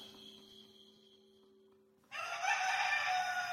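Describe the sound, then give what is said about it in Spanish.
A rooster crows loudly at daybreak, a single bright, strained call that bursts in after a quieter stretch of steady hum and fills the rest of the moment. “El canto del gallo anunció un nuevo día.”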